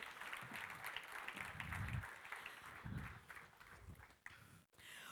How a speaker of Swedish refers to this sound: En applåd för David! Bra jobbat, tack!